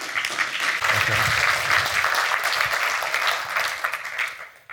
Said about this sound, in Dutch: Een hartelijk applaus graag